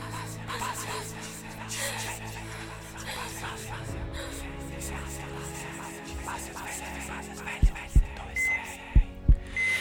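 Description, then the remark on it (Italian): Muffled heartbeat thumps from a cardiac monitor in a hospital emergency room come in double beats near the end, with only a few pulses sounding over a steady low hum and faint background murmur. “Una flebo attaccata al polso, un monitor per il battito cardiaco, uno per lei, uno per il figlio.”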